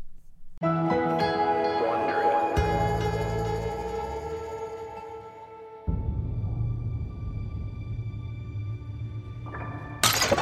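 A clay tablet hits the floor and smashes into a dozen jagged pieces with a sharp shattering crash, then lingering ringing tones and low rumbling carry on for several seconds before a brief bright burst near the end.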